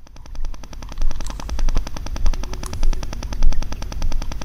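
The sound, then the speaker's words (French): An eel-shaped freshwater fish from local rivers produces a rapid, steady train of dry percussive knocks, repeating continuously like fast drumming, with no voices. “je vais vous dire que les poissons chantent. On va en écouter un.”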